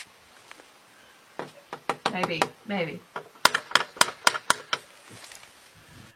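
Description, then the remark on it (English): Light, quick raps on a door, about eight knocks in a steady run, fairly soft, following a few scattered taps and a brief spoken exchange. “What kind of wussy knock is that?”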